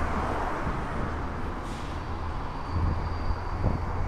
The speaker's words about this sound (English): Oh, there's a there's a train going by, a commuter rail train, a diesel train, and you could really get the fumes up here.